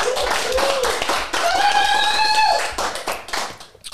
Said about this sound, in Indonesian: Weh, tepuk tangan.